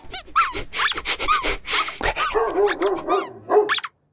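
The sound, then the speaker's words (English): A dog barks and yips in a rapid, busy string of short bursts, mixed with high squeaky sounds, fairly loud, then cuts off abruptly. “Good dog.”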